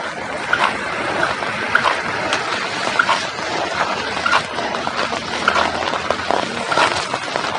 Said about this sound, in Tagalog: At hindi pa rin tumitila yung ulan mga kasinigami